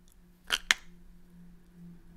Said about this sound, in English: And then you hear an, a, a, a key going into the lock.